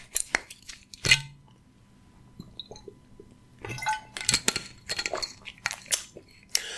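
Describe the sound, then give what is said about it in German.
Sharp little clicks and a faint glassy clink from a water glass being handled, followed by soft slurping, swallowing and moist mouth sounds from someone taking a sip, with no talking. “Erst nochmal ein Schlückchen Wasser.”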